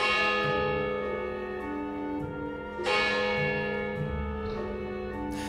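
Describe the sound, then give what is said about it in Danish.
Church bells peal steadily, each new strike landing over the long, humming resonance of the last. The ringing is loud and full, with no voices present. “Nå, men hvis der er noget trolde hader, så er det lyden af kirkeklokker.”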